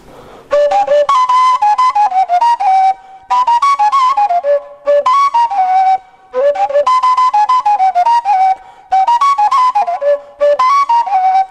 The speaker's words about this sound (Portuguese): é a gaita colombiana que fazem os indígenas Cogis da Sierra Nevada de Santa Marta. Este que é o coração de um cactus, que o nome é cardão. Este, a cabeça é cera de abelha misturada com carvão molido. E aqui é pluma de pato.